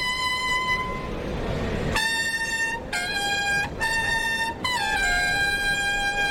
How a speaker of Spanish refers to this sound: Suenan ya clarines para la salida del cuarto, segundo del lote de José Antonio Morante de la Puebla.